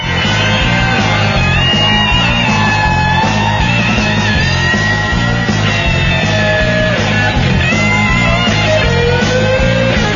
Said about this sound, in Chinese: 你看你们，哎，这掌声。